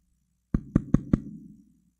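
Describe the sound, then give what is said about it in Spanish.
Four quick, evenly spaced, fairly loud knocks on a wooden door, each with a short resonant thud that fades away afterward. No one speaks. “¿Quién es? Yo, bendiciones. Ábreme ah, que tengo pan.”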